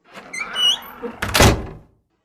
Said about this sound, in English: I lumbered over to it and knocked desperately at the door. The door was opened by a doddering old butler who stood and stared at me a while.